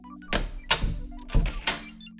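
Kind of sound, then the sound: impact, knocking on a door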